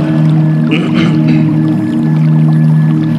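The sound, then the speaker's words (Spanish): Gentle trickling water runs beneath sustained, ringing bell tones that hum steadily throughout, with a brief brighter splash of higher sound near the start. No one speaks. “Creo que escuchan son un poquito de agua, son unas campanas.”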